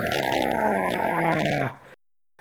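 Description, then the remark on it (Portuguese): A voice imitates a creature's roaring scream: one loud, raspy, sustained cry with a low, gravelly tone, lasting under two seconds before breaking off into silence. “Uh, ele dá um grito, um berro, um...”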